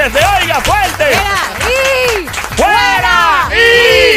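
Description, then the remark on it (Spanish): Audience applause for a karaoke performance, mixed with a crowd's loud cheers and shouts, the raised voices rising and falling over steady clapping for the full few seconds. “Fuerte el aplauso una vez más para el karaoke”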